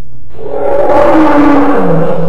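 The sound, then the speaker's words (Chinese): A dinosaur roar in a forest: one long, loud, rumbling bellow that swells in after a brief quiet start and holds for about two seconds, its pitch gliding downward toward the end, with no talking. “忽然，森林里四面八方都传来恐龙的吼叫声。”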